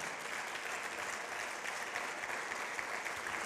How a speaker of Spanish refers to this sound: Dale un fuerte aplauso ahí al Señor. Dale.